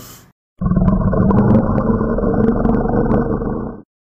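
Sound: lion roaring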